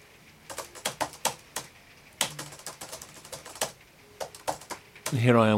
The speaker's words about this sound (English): I type on a clumsy, very old fashioned laptop. I hate modern, sleek laptops.